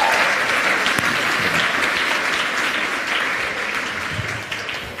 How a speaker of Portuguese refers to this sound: Dá uma salva de palmas de verdade, pessoal.